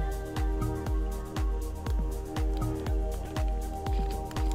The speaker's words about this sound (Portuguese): Deixa eu tomar um pouquinho de água aqui.